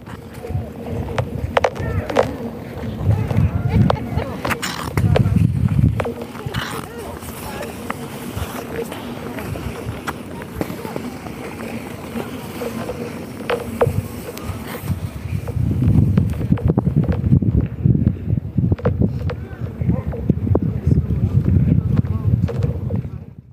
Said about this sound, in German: ich muss sagen, dieses Eis kaputt schlagen und auch diese Eisplatten hervorheben, ähm, zu werfen, all die Geräuschkulisse auch, die gerade beim Eisschwimmen ähm, dazukommt, ist Teil der Faszination auch für Winterschwimmen.